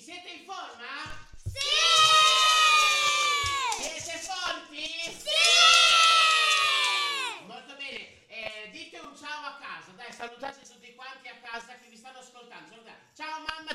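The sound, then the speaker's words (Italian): A crowd of many children shouts together on Radio 6 in two loud, sustained bursts of high voices, each lasting a couple of seconds, followed by quieter talking from a single voice. “Io sto benissimo e abbiamo qua tantissimi bambini, fatevi sentire! Più forte!”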